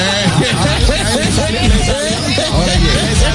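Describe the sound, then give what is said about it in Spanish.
A dense, steady murmur of many voices from the crowd at the Estadio de las Estrellas blends into a continuous hubbub, with overlapping chatter and occasional louder calls rising out of the crowd noise. “Ah, eso es lo que se oye en el Estadio de las Estrellas.”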